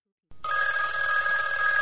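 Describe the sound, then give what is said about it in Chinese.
After a brief silence, a loud bell starts ringing and keeps going without a break, a steady, bright metallic jangle with a sustained high tone and no voices. “在他登上领奖台的时候，突然听到了一声铃响”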